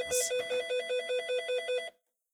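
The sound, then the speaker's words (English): A telephone rings in a pilot's home with a fast, trilling electronic warble, about eight quick pulses over two seconds, clear, then cuts off abruptly into silence. No one speaks. “In the home of the pilot who is watching the newscast, the phone rings.”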